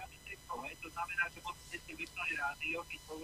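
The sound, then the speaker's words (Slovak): Radio broadcast audio echoing back over a caller's phone line because the caller's radio is on: thin, muffled speech drifts in and out continuously, with a steady low hum running underneath the whole time. “E, tam je ja echo. E, vypnite si rádio.”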